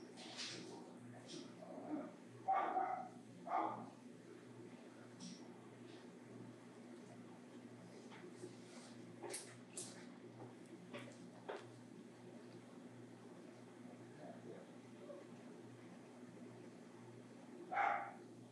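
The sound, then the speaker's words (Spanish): A dog barks, a few scattered barks early on and another near the end, over a low, steady background hum. “Le va a seguir ladrando?”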